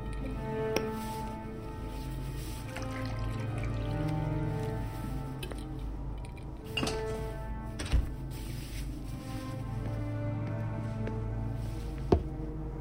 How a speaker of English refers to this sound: Then I poured Caleb a glass of milk